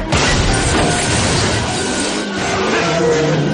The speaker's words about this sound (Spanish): Taylor empuja otro coche para que se choque y de una vuelta de campana.